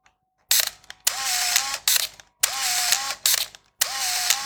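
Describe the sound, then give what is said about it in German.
A Canon AF35 M2 point-and-shoot film camera powers on with loud, whirring motor bursts, three long buzzing runs separated by short gaps and clicks, mechanical, with no one speaking. “Und wir machen das Ding jetzt mal an. Das ist nur das Anmachgeräusch.”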